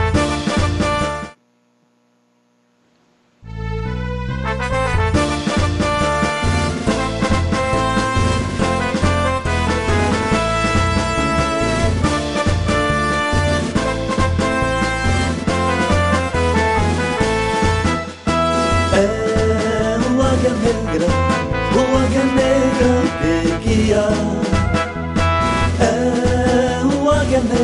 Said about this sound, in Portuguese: A gente vai ouvir as informações do Águia antes o hino, né? Vamos ao hino do, do nosso querido Águia Negra.